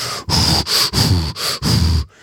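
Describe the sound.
Loud, exaggerated heavy breathing close to a microphone, about five rough, forceful breaths in a steady rhythm with brief pauses between them, ending with a softer exhale.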